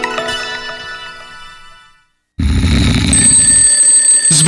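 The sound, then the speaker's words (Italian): A fading tonal chime gives way to a brief silence, then an alarm clock bursts into loud, continuous ringing with a shrill, buzzing metallic edge that keeps going to the end, opening a radio advert for a Materassi Barone mattress sale. “Sveglia, sveglia!”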